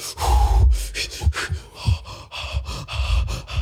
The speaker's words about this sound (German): Und was auch immer äh, ist, tiefes Atmen.